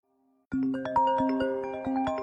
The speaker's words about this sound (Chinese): 这时，电话铃声响起，这个时间打来，一定是那个可爱的女人。